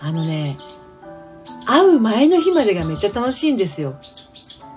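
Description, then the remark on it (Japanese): Birds perched on a nearby antenna chirp in quick, bright high-pitched bursts, heard mostly at the start and end while a woman talks steadily over them. “なんか私の喋りに負けないぐらい鳥が鳴いてるんだけど すごいピーピー”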